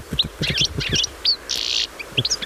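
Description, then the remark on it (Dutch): A European goldfinch calls in quick, liquid twittering bursts with bright tinkling notes and a brief buzzy trill, clear against a quiet background. “Nou, dus als je dit geluid hoort, dan weet je, het puttertje is in de buurt.”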